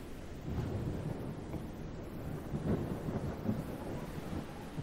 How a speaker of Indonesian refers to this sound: ombak yang menabrak batu karang, guntur yang makin jelas terdengar.